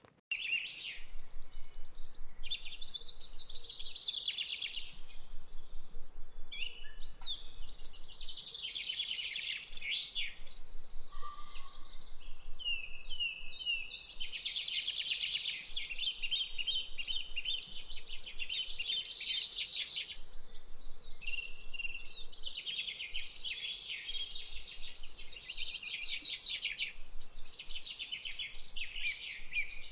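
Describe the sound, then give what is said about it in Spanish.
Dense, continuous bird chirping from many wetland birds in the wetlands of Suba, a bright high-pitched chorus of overlapping tweets and trills that stays steady throughout, with no voices. “Vale, a mi suba me suena naturaleza, humedales, así como diversidad de aves y animales.”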